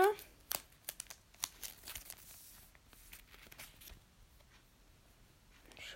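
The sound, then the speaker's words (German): Crinkly plastic rustling as a holo Pokémon trading card slides into a sleeve: a cluster of sharp crackles in the first two seconds, then fainter, steady rustling that fades. “So, packe ich schon mal eine Tüte.”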